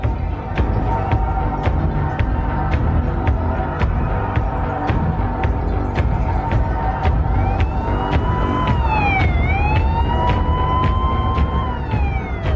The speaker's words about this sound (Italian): Mentre le auto della polizia sfrecciano di fronte al Texas Movie Theater